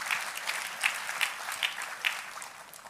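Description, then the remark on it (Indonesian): Sustained applause from a church audience, clapping for God, a dense wash of many hands clapping with a few sharper claps rising above the steady roar, and no talking. “Tepuk tangan boleh yang paling meriah buat Tuhan kita.”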